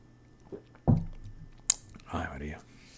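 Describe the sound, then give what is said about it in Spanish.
Quiet mouth sounds of someone taking a small sip of beer: a wet slurp and gulp, a brief sharp click, then a short satisfied vocal breath, with no words spoken. “antes que continuar aquí, déjame un sorbito de la cervecita esta.”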